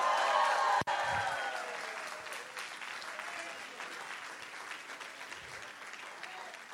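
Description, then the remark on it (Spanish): A large audience erupts in a loud shout of victory, cheering, shouting and clapping, strongest at the start and then slowly easing into a sustained, reverberant roar of applause and voices. “Dale un grito de victoria.”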